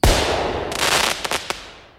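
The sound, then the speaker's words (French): A sudden, loud gas explosion erupts with a deep boom, then several sharp crackling pops follow as a rumbling roar slowly fades away. No voices are heard. “En cas de fuite, il va avoir tendance à s'accumuler au niveau du sol jusqu'à ce que le bon mélange d'air et de GPL soit atteint et qu'une source incandescente, la mise en marche d'une voiture par exemple, y mette le feu, résultant en une explosion.”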